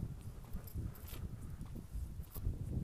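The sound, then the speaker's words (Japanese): Outdoor ambience on a sidewalk beside a road with car traffic, recorded on an iPhone through the microphone of its stock earphones: a steady low rumble of passing traffic and irregular tapping steps on pavement, at a moderate level without any talking. “そしてこの録音環境は今皆さんにも聞こえているように車通りのある道の歩道だったり”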